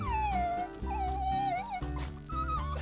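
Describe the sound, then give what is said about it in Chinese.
A dog that fell into a hole in the ground while chasing a rabbit, in the countryside of southwestern France in late summer 1940, whimpers in a few long, high-pitched whines that waver up and down, with brief breaks between them; the crying is steady and fairly loud, with no one talking. “结果狗狗啊，竟然因为追兔子而掉进了地上的一个窟窿里。”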